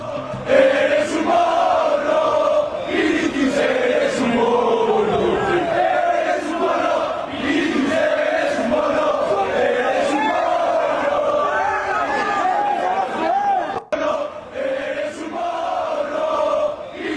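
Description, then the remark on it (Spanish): A large crowd of football fans outside the stadium, behind the bus on the far side of the pavement of Avenida Suecia, many unable to get into the stadium, chants loudly and continuously in unison, voices blending into a sustained roar with rising melodic shouts, briefly dipping near the end before resuming. “viene del otro lado de la acera de la Avenida Suiza, como dice Alex, estas imágenes y estos cánticos”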